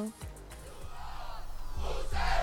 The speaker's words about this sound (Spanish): Aplauso para Duoc, fantástico. Diría que nos están escuchando acá en la sede, pero no hay nadie.